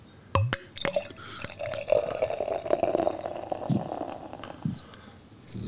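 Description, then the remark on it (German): A large bottle of Kellergold beer, a Kellerbier, is opened with a sharp crack and hiss, followed by a steady gurgling pour into a glass that runs a couple of seconds, then a few soft clinks and drips. “Eine schlanke junge Dame, könnte man euphemistisch sagen, hat hier also eine große Flasche mit Kellergold auch in der Hand. Ähm, ich mache das mal auf.”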